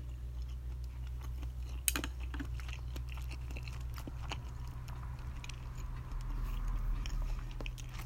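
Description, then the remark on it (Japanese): Steady, moist chewing of pork belly with soft crunchy bites and squishy mouth sounds, one sharper click near the start, over a low constant hum, no talking. “とりあえずもうちょっと食べ進めましょうかうんうん玉ねぎが甘い いいね”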